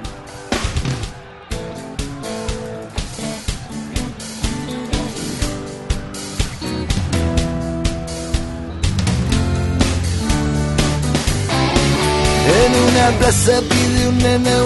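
A recorded song plays with full instrumentation and a steady rhythmic pulse, starting moderately and swelling fuller and louder about halfway through. There is no talking over it.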